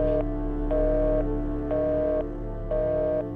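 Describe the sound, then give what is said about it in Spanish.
A phone's low-battery warning beeps four times in a steady on-off rhythm, each tone about half a second long, clear and fairly loud over a constant low electrical hum. “Lorena escuchó un sonido de advertencia del teléfono acerca de la batería y la pantalla de este se volvió negra.”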